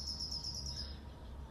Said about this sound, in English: Hi, little birdie. I love the sound of the birds.